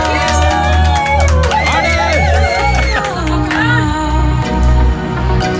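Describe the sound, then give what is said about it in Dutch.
Studio applause and cheering from a small crowd of people in the studio after an hour-long DJ mix set, with whoops rising over a loud, steady beat of music that runs underneath the whole time. “Staat er nog even applaus achteruit.”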